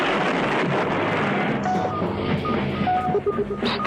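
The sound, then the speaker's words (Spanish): A loud, steady vacuum-cleaner roar fills the whole stretch without pause, joined partway through by short electronic beeping tones layered over the whooshing hum. “Y esa aspiradora que suena.”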